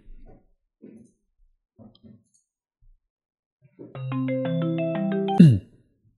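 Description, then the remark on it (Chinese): A phone ringtone for an incoming call plays a bright melody of stepping electronic tones for about a second and a half during a recording, then cuts off abruptly with a click, following a few faint, brief murmurs. “不好意思，刚才有个 好，没事儿， 有一个广告广告断点， 嗯，好， 电话来着”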